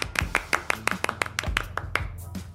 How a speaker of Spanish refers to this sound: Otro aplauso para el amor.